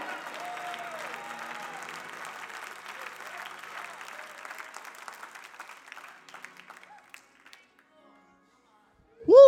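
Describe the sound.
An audience clapping hands in dense, steady applause with scattered voices, thinning out and fading to near silence, then a loud tonal voice bursts in at the very end.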